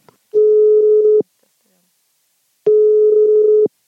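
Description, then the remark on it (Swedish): Two steady, buzzing telephone ringing tones heard down the line while a call to businessman Rune Andersson connects, placed to ask him for a comment. Each tone lasts about a second, with a long silent pause between them; no one speaks. “Det blev stor uppståndelse när han inom loppet av några dagar både sålde och hävde försäljningen av en storpost i Academedia till Roger Akelius vi kände oss därför tvungna att ringa honom för en kommentar.”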